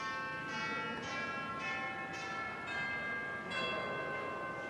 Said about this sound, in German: Und die etwas größeren Glocken sind Klangstäbe, also sogenannte Röhrenglocken, klingen dann eher wie große Kirchenglocken.